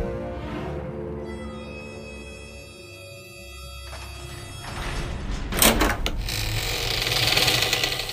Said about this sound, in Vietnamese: Tiếng tảng đá chắn trước cửa hang bàn thạch môn đang rung chuyển Y cả lang nói không sai Cửa hàng đang được mở ra một cách từ từ